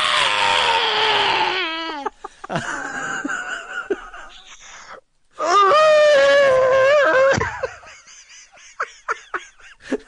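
A scream sound effect: loud, drawn-out screams with falling pitch, one long wail followed by a second piercing burst, then a string of short, fading yelps at the end.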